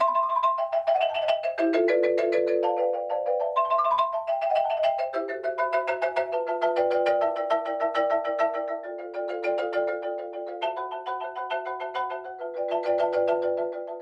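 A vibraphone melody played by a drummer with four mallets, two in each hand, bright bell-like notes ringing over sustained chords in a steady, flowing rhythm, moderately loud with no voices.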